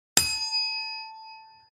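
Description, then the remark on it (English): A single bright bell ding marking the end of a timed speaking segment rings out sharply, then its clear metallic tone hangs and slowly fades over about a second and a half, with no voices. “And just like you, I've got 10 seconds left to drag and belabor the last little point before the bell.”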